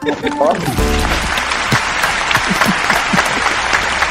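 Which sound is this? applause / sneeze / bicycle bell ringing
applause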